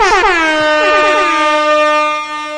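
Air horns blare loudly in a sustained, overlapping chorus, starting with a few sharp bursts before settling into one continuous, piercing honk that fills the whole stretch.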